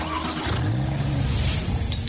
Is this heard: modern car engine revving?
yes